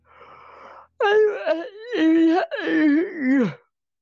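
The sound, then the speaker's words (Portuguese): A drawn-out vocal yawn, loud: a breathy intake, then several stretched moaning tones that rise and fall in pitch before trailing off into a low sigh. “Isso foi um bocejo.”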